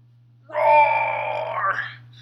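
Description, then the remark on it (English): A man lets out a single drawn-out roar with his voice, imitating a wild animal's primal roar, loud, holding for about a second and a half before trailing off, with a low steady hum underneath. “That's my animal primal nature sound roaring.”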